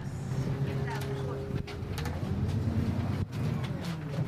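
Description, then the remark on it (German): Steady low engine drone fills the inside of a moving city bus heading to an outer district of Helsinki, Finland, with a humming tone that shifts in pitch, occasional rattles and clunks, and faint indistinct voices in the background. “Wir nehmen dorthin den Linienbus.”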